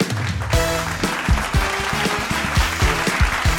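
An audience claps steadily for a guest speaker after a talk about presenting, a dense wash of applause with no one speaking, while a bright musical tune with plucky low notes plays underneath.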